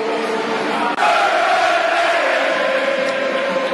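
A football stadium crowd filling up for a Millwall match against Brentford in the afternoon, opposite the Dockers stand and the Coldblow, heard from high in the west stand; a dense, steady murmur of many voices with a brief dip near the start, then a sustained hum of chanting or calling held over the noise.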